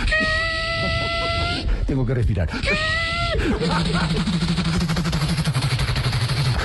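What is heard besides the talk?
helicopter engine running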